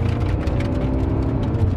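A car engine hums steadily as the vehicle drives along, a continuous low rumble with faint tonal whine layered over it, constant with no voices. The car is overheating, giving off a burning smell as its engine temperature keeps rising.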